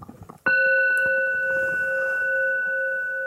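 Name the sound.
gong strike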